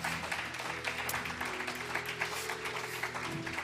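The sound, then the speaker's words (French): An audience at a morning gathering streamed online claps continuously, a dense crackle of many hands at steady volume with a faint low hum beneath, lasting a few seconds without a break. “Est-ce que vous êtes là ce matin Est-ce que vous pouvez applaudir pour nous faire signe et faire signe à nos internautes que vous êtes là”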